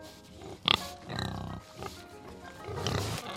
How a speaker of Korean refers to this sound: 돼지는 대답도 안 하고 꿀꿀거리면서 먹이만 먹고 있었어요.